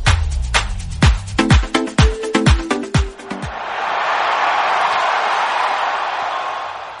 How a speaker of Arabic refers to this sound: شغلنا لكم صوت الجمهور عشان تعيشوا اجواء الملعب.